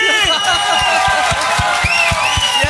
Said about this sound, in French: Hey, man, ces gars-là, c'est les plus nice, man. Applaudissez-les.